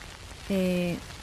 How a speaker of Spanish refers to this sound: y la cerveza que estamos escuchando tiene algo que ver al respecto